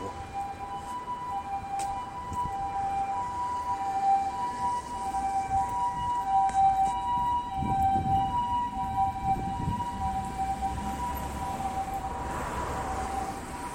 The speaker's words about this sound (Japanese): すいません、あの、サイレンが、救急車が、ちょっとそう、通り過ぎるまで車も多いですね